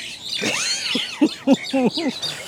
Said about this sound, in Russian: Вот и птички тоже решили поучаствовать.